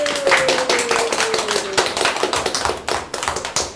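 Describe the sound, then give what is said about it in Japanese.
A small group of children claps their hands together at the start of their broadcast, a quick, uneven burst of overlapping claps that continues steadily for several seconds, with no talking. “拍手。”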